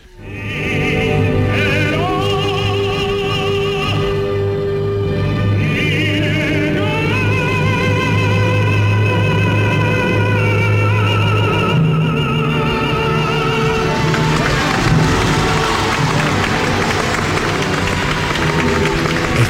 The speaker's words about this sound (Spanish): Eh, esta ovación la está recibiendo en mitad de la, pieza. ¿eh? La piel de gallina, ¿eh?